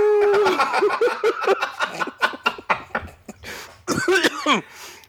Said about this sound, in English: Ooh, that's Lord, a normal Lord cough. Jesus. I promise. that's not a weed cough. that no, that's not a weed or corona cough. That's a normal cough.